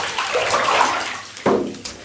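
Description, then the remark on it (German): Water is sloshed and churned to imitate a storm surge, in a continuous rush, with a sharp surging splash about two-thirds through and a smaller one near the end, fairly loud with no voices. “Ein bisschen Sturmflut kann man hier wunderbar machen.”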